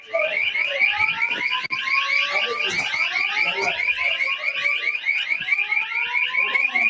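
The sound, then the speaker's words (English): A loud, continuous fire alarm horn blares with a rapid pulsing warble while strobes flash, filling the whole stretch without pause, harsh, with faint background noise underneath. “That's the fire alarm sounding, and there's strobes flashing.”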